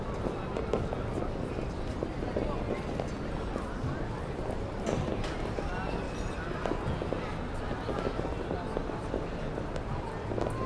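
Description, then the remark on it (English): Dense, rapid popping and crackling bursts of fireworks going off one after another, steady and busy throughout, with a murmuring crowd of voices underneath. “You look around at the people who oo and ah in pure joy as each firework blossoms, one right after the other.”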